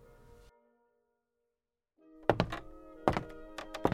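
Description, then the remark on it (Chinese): A small wooden rocking chair cracks and collapses as a little girl rocks on it: after a brief hush, a series of sharp, hollow clattering thunks and crunches ring out in quick bursts, with a resonant woody tone lingering between hits. “小女孩高兴的摇啊摇，就这样，哐，椅子坏掉了。”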